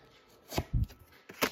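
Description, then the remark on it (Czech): Tarot cards being drawn and laid down: a handful of quick, soft slaps and papery taps in an uneven rhythm, with one duller thump among them and no talking. “Tahám další karty.”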